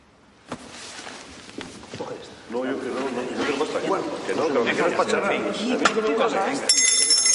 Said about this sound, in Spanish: La marquesa toca la campanilla y la criada se acerca.